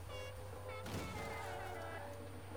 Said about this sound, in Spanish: A la verga, ese claxon. Escuchen mi claxon, gente, antes que nos vayamos.